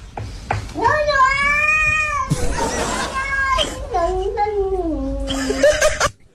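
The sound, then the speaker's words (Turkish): A cat yowls in long, drawn-out meows with rising and falling pitch, shaped so they sound almost like the Turkish words "dondum anam" ("I froze, mom"). The calls are loud and carry on for several seconds. “Dondum anam diyen bir kedi var.”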